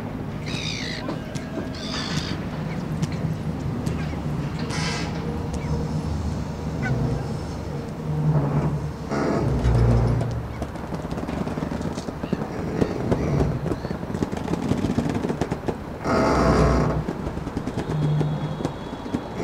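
A busy Hamburg harbour soundscape: a steady low rumble layered with rhythmic knocking and clattering, occasional honking blasts and squawking bird-like calls, all fairly loud and continuous with no one talking.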